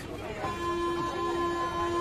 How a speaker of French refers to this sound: Et quand j'en sors, je retrouve Paris et sa circulation le temps d'un instant, le bruit de ses klaxons, des tramways et de la foule.